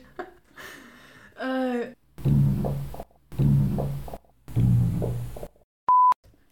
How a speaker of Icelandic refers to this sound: Ég er að prumpa.